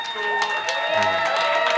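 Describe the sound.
An audience claps and cheers for a couple of seconds to vote for a performer in a battle, a steady wash of hand claps mixed with whooping, shouting voices at a lively, fairly loud level.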